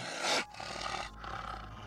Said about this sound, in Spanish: Al ser derribada nuestra puerta, escuchamos gruñidos dentro de la casa y crujir la madera del piso al caminar alguien demasiado pesado sobre ella.